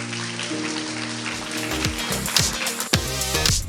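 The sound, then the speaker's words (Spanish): A crowd gives a strong round of applause to the King, a dense continuous patter of many hands clapping, while sustained keyboard chords and a low bass line play underneath. “Porque no le dan fuerte aplauso al Rey?”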